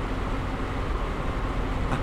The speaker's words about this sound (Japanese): ラジャ、それではアクセル踏みます。今、車が動き出しました。えそして、まもなく目の前の路面が氷に覆われたアイスバーンに変わります。